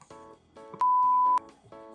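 A steady, loud censor beep lasts about half a second, covering a spoken amount of money paid for a design job, with talking audible right before and after it.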